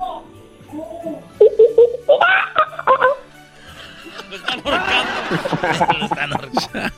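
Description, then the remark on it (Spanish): A person, asked to make the noise of a monkey, imitates it with a string of short, pitched hooting bursts, fairly loud, followed by breathy chattering and laughter-like sounds. “Ahora el, ahora el ruido de un de un de un mono.”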